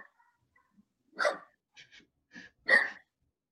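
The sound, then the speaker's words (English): A dog shut in a room of a house barks sharply a few times at close range, two loud barks separated by softer yips and snuffles, with no one talking. “now the dog's in here barking with me.”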